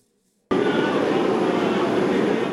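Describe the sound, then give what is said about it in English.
After a brief silence, a New York City subway train's loud, steady rumble kicks in abruptly and continues without a break, a dense roar with no voices. “Rare images are coming from the New York City subway that used to run 24 hours a day.”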